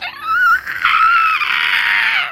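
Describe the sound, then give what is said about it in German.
A dense, sustained wall of many thousands of voices screaming together as one in an unbroken, shrill roar, loud and approaching, holding steady for a couple of seconds with no talking. “Wie aus einer Kehle schreien, die sich nähern, die jetzt viel näher sind als vorhin noch.”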